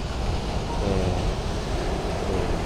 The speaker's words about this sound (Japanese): ちょっと雨が多かったせいか、波がすごく高くて、いつもより音が、波の音が大きいです。